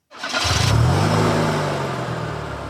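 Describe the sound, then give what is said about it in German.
A motorhome engine cranks and catches, then revs with a rising, strained drone that settles into a steady running hum as the motorhome pulls away. No one speaks. “Einfach mal raus mit dem Wohnmobil vor die Tür und die nähere Umgebung erkunden.”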